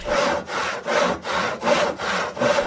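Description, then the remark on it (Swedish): A large handsaw cuts through wood in a steady back-and-forth rhythm, about six raspy strokes in quick succession, fairly loud with no voices. “Jag bara nu kan jag äntligen få dra fram den stora sågen igen och bara”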